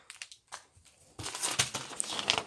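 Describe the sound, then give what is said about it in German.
Waste paper being crumpled up, starting with a few soft rustles and then turning into a dense, continuous crinkling that stays loud until the end. “Das ist Müll. Das Papier.”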